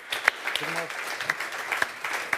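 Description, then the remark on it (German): Applause from a live show audience, a dense wash of many hands clapping steadily with a few sharper individual claps standing out, and a brief voice murmuring underneath. “Bevor wir aber noch was von dir hören, und du darfst es gerne selbst ansagen, nochmal einen ganz großen Applaus und ein äh, großes Kompliment an dich,”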